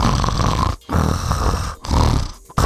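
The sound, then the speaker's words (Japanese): A voice imitates the loud snoring of a man asleep in a full movie theater during a screening of Wes Anderson's Asteroid City: three rough, rattling snores in a row, each separated by a short pause, with no other talking. “いびきが聞こえるんですよね。”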